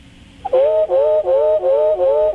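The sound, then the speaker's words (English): A wood thrush song slowed to one-tenth speed, giving only the higher-frequency sound of the bird's right voice box: one clear, fluty whistled tone that wavers slightly and pulses in four connected phrases. It is loud, with nothing else beneath it. “There's the right voice box, it's the higher frequency.”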